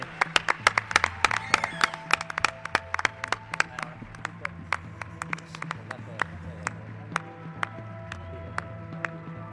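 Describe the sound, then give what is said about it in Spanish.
An audience breaks into applause for Víctor Amela, a dense burst of sharp claps that gradually thins out into fewer, sparser claps, with a low background murmur underneath. “Un aplauso, Víctor Amela, un grande.”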